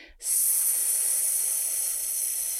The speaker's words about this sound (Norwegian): Og det kan du gjøre så enkelt, sånn som eh, sangere for eksempel bruker veldig ofte det man kaller S-pusten. Det er rett og slett at du ikke tenker så mye på hvordan du puster inn, men når vi puster eh, ut, så tar vi rett og slett og bare sier